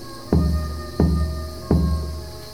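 Three slow, evenly spaced knocks on a massive old wooden door, each a deep booming thud that rings out briefly before the next, loud with no voices.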